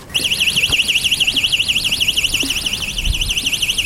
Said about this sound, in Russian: А это звучит вовсе не э, сигнализация автомобиля. Так открываются калитки в детской воспитательной колонии в Колпино.